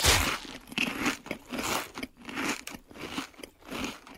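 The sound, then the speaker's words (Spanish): Loud crunching of potato chips being bitten and chewed, a series of crisp, crackly bursts in an uneven rhythm with brief pauses between bites, no voices. “Papas doraditas. Lleve papita. Oye, amigo, ¿no tienes papas con sonido?”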